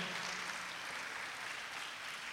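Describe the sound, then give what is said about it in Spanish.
Steady applause from an audience during a sermon, a dense, even wash of many hands clapping at once for Christ with no pauses, holding at a constant loudness for a couple of seconds with no voices. “¿Por qué no le dan aplauso a Cristo esta tarde, por favor?”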